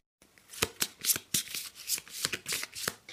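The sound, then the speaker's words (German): Stiff tarot cards being handled, a quick series of crisp papery snaps and slides as the next card, the Seven of Coins, is flipped over, with no one speaking. “ich drehe die nächste Frage um.”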